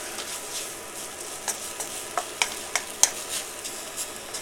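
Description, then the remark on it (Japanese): Instant noodles and bean sprouts being mixed together in a pan to make a yakisoba-style dish: a steady sizzle with a series of sharp scraping clicks and taps from the utensil, irregularly spaced, no talking. “今ねもうもやしこれはね本来はその麺に味付けのねそのやつをやってでその麺の上に味をつけたもやしをのっけて食べるっていうスタイルなんだけどもう混ぜちゃう混ぜて 丸ごと焼きそばみたいにしちゃいます”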